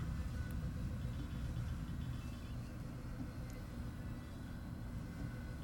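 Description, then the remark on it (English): A refrigerator runs with a steady, low rumbling drone that holds constant throughout, with a faint higher hiss above it and no voices. “I hear a sound. Is that like a train passing or something? Perhaps. I think it's the refrigerator.”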